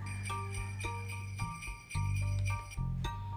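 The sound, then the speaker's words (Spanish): Bells ring outdoors in daytime on Christmas Day in a steady sequence of struck tones, each strike sustaining and overlapping the next, moderately loud, with no voices present. “Afuera era de día podía oír el sonido de campanas.”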